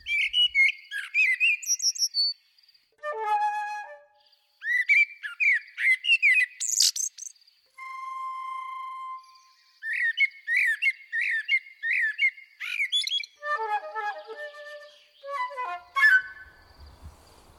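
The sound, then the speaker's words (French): A songbird sings alone and up close, trading bright chirps, trills and clear whistled notes in quick, varied phrases with short pauses between them, continuing steadily throughout. “Le moineau, honteux et confus, jura de ne plus siffler que les chants de son cru.”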